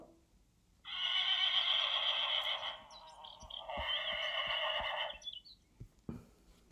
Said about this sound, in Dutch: We zien een paard, Hugo en Jinnert. En uh, nou, dan vraagt dus, hè, wordt er gevraagd hoe vaak hinnert Hugo het paardje. Nou, dat zal ik even laten horen.